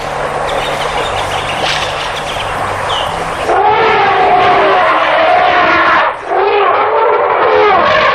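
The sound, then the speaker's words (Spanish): An elephant herd arriving at a waterhole in Botswana: a dense, rough wash of animal noise, then loud overlapping trumpets and calls with sliding tones, briefly dipping before the din resumes. “Este sonido fue grabado allí en Botswana. Es, es una manada de elefantes llegando a una charca.”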